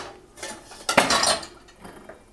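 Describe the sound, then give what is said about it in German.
Dishes and a pan clatter as they are lifted out of a dishwasher, with a sharp metallic clank at the middle followed by softer rattles, without speech. “Oh, die Pfanne ist nicht richtig sauber geworden.”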